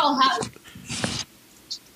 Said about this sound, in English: And hold on, I got to shut my dog up.